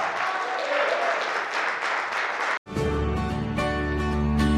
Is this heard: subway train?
no